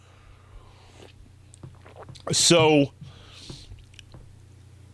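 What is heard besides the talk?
sipping coffee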